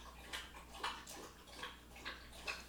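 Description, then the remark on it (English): A dog makes quiet, repeated wet snuffling or licking noises, in short bursts about every half second, faint, with no talking. “And what is that noise? Oh, it's my dog.”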